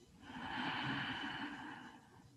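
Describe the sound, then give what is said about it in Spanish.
A single long, deep breath drawn in during a guided breathing exercise, a steady airy hiss that swells and fades over about two seconds, with no talking. “Inhalamos. Exhalamos. Inhalamos.”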